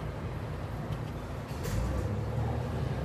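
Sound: car engine running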